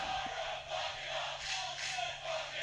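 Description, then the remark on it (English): A large wrestling arena crowd boos Pac in a sustained, roaring wash of voices that swells and dips slightly but never stops, loud and enveloping with no single speaker standing out. “The crowd has turned on Pac as well.”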